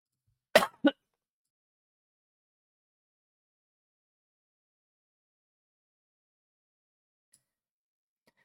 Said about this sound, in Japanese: ごめんなさい、咳が入っちゃった。すいません。ちょっとね、収録ゼロだとこういうリスクが起きちゃうんですけど、失礼しました。